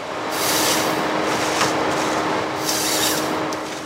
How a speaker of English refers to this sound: the machine picks up a fully grown jack pine out of the ground like a toothpick cuts the trees to a certain length that meets our technical specifications and zips them, debarks them, delimbs them, and then it cuts it to length.